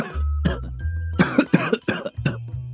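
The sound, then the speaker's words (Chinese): A middle-aged man coughs repeatedly in a series of harsh, rough bursts, about six or seven over a few seconds, fairly loud, with no talking. “中年男人一边咳嗽一边说道”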